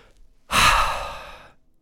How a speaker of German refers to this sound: Ruhig einmal oder auch zweimal tief durchatmen. Reduziert deinen Stress, erhöht den Sauerstoffgehalt, verbessert dein Denkvermögen und macht es dir sehr viel leichter, mit dem Stress umzugehen.